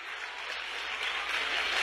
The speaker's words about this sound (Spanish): Dale un aplauso más fuerte de ahí al Señor en esta hora.